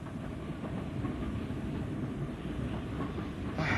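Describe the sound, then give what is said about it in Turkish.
A moving first-class couchette train rumbles steadily, its wheels clacking faintly and rhythmically over the rails in a continuous drone with no voices. “Birinci sınıf kuşetli trendesiniz.”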